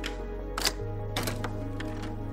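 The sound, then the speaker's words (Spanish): A steady low electric buzz drones throughout, its pitch shifting partway, a harsh buzzer doorbell rung by someone at the door, with several sharp clicks and rattles scattered over it. No one speaks. “Piensas que debes cambiar ese horrible timbre de chicharra te incorporas molesto porque quien sea que toca la puerta ha interrumpido tu siesta.”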